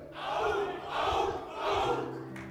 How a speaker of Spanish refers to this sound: Ese es el grito de los hombres acá. Digo, el que yo siempre traigo. Dice, ¡au! ¡au! ¡au!